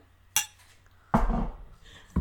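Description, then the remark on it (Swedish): Glasses of mulled wine (glögg) touching in a toast: a sharp glassy clink, then a second, fuller knock, and a final quick tap at the end, fairly loud against a quiet background. “Skål på dig älskling! skål kära gud, skål!”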